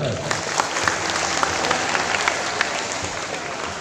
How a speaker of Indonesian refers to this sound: Sandai? Sandai, tepuk tangan Sandai.